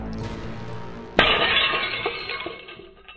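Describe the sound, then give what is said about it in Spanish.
A second-floor window pane shatters with a sudden loud crash as a man's body breaks through it, followed by a bright spray of tinkling glass fragments that scatter and fade over a few seconds. “No lo dudó y se lanzó al vacío rompiendo con su cuerpo el cristal de la ventana.”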